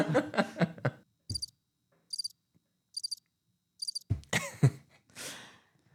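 cricket chirping sound effect

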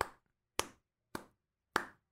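hand clapping

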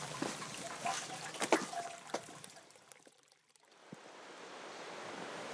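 river water flowing

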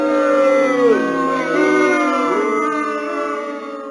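crowd booing sound effect

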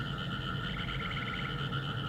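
frogs croaking

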